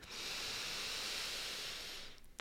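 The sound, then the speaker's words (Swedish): A deep inhale through the nose, filling the chest and belly with air, one long steady airy hiss lasting about two seconds, fairly quiet, then fading out with no talking. “Så oavsett vart du är, släpp ner axlarna, släpp ut magen, ta ett djupt andetag in genom näsan där du fyller upp bröstkorgen och magen med luft”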